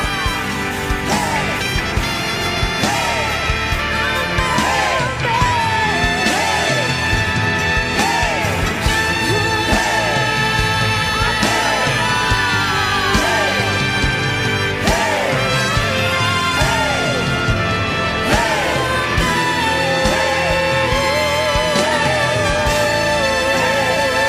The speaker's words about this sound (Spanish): Si eres generación de conquista, corre al altar y grita con nosotros.